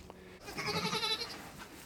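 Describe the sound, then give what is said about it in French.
A single sheep bleats once, a wavering, quavering call lasting about a second, on its own with no one talking. “mais le matin et le soir, je m'occupais des moutons.”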